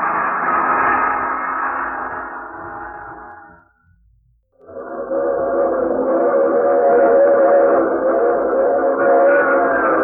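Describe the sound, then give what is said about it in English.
A train whistle sounds in two long, loud, steady blasts separated by a brief pause, with a low rumble of the moving train running beneath them. “I take this same train every week at this same time.”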